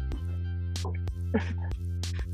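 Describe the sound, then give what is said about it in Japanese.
A voice imitates the clicking servo motors of a robot dog being powered on, the sound known from Boston Dynamics videos. It makes a rapid series of sharp, breathy 'cha' bursts, repeated several times over a steady low hum. “だから電源入れると、耳ターニーの音で、チャッチャッチャッチャッチャッチャッチャッチャ”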